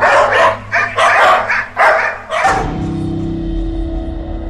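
Dogs bark loudly in a quick run of overlapping bursts for about two seconds, surrounding a woman who got out of a car to chase them away, then the barking stops and a steady low rumble carries on.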